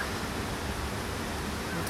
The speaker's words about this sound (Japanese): 来来橋の滝の音を聞きながらお送りしておりますはい滝の音いいでしょう